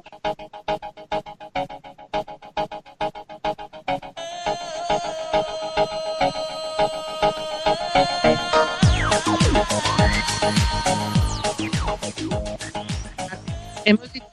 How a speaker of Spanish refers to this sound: le voy a pedir al maestro Sune que le ponga música